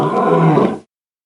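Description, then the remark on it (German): A single loud, rough dinosaur roar, deep and growling with a harsh rasp, lasting under a second before cutting off abruptly into silence. “Der dino des Tages.”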